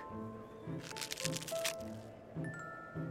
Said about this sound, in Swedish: Harriet bröt loss en bit kartong så det i kyrkan började att knaka.